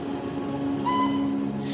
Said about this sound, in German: So, schon sind wir da. Der Zug ist auf der anderen Seite der Haustür vorgefahren.